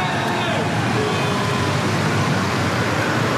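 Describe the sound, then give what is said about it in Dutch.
Steady city street noise in front of a front door, with a continuous wash of traffic and vehicles such as taxis and beer bikes rumbling past, and a faint murmur of voices mixed into the busy background, with lively groups of British people about. “voor de deur ook altijd wat te doen. Nooit verlegen om een taxi of een bierfiets of uitgelaten groepen Britten.”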